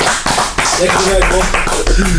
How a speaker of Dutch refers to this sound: jij mag van ons namelijk een pen en een gloednieuwe sticker opkomen halen. Applaus!